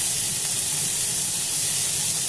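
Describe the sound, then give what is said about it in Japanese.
Chicken sizzles steadily in a frying pan, cooked skin side first so its fat renders out, a loud, bright crackling hiss that holds constant throughout, with no voices over it. “焼き加減のコツとしてはですねあの皮から焼くことですね鶏肉の美味しい焼き方って皮はやっぱり分厚くて熱が通りにくいので皮を焼いてまず油を落とし”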